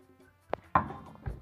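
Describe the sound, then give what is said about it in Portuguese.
A dog knocking against a door: three irregular wooden thumps, one sharp knock followed by a heavier bang with a short rumbling scrape, then a duller thud. No one speaks. “É, cachorro batendo na porta, raspando tudo.”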